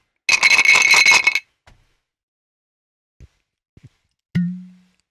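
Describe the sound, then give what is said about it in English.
A bottle is uncorked: a second of rough twisting and scraping, a few small clicks, then one crisp pop with a short hollow ring that fades. There is no talking. “And then I've got the decork sound.”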